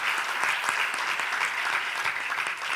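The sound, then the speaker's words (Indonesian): A crowd claps steadily in praise of the Lord Jesus Christ, many hands at once forming a dense, continuous wash of applause with scattered sharper claps standing out, sustained at an even level throughout. “Yang sudah mengalami itu berikan tepuk tangan bagi Tuhan kita Yesus Kristus.”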